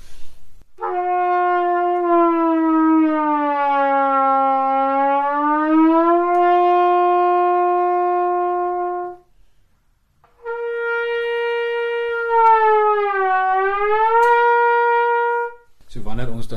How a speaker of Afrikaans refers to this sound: Ek gaan vir julle nou 'n stadige noot speel dat julle kan hoor met ander woorde die noot gly van 'n kort pyplengte tot 'n baie langer pyplengte. So ons het met ander woorde een klank.